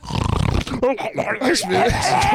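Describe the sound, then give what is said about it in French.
A person imitates loud, rough snoring, a rattling, choking snort, followed by strained, gurgling vocal noises that continue the impression. “Ouais, c'est ça, il imitait son chien Balou, mais pour le vrai, là, il, il dormait des gros max de 5 minutes, puis tout le temps.”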